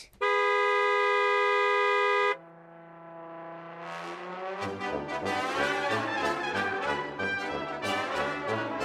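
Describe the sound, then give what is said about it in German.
A single long, loud car horn blast holds steady for about two seconds, insistent, then cuts off as upbeat music fades in and builds. “Düt, das ist ein freundliches Hallo hupen wenn jemand ganz sauer ist und dann hupt, dann ist es so richtig laut.”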